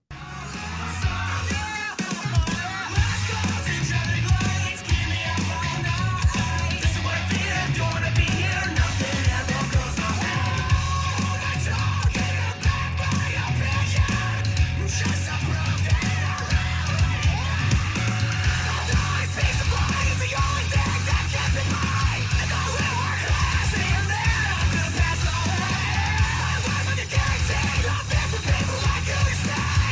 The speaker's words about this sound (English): The album … comes out October 6th on Solid State Records. Let's take a listen.